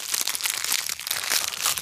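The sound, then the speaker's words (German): Continuous crinkling of a plastic wrapper as a fortune cookie is unwrapped, with small crunchy snaps mixed into the rustling; no one speaks. “Dann machen wir vorher noch Glückskeks.”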